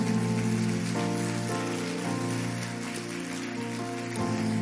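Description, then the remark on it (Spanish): A church audience applauds loudly for the Lord, a dense, steady patter of many hands clapping for several seconds over sustained keyboard chords, with no voices. “Hay alguien que le puede dar un fuerte aplauso al Señor por eso.”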